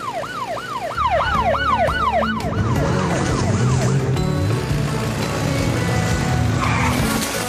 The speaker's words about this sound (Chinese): 猪猪找到了，跟着阿奇无人机的警笛走。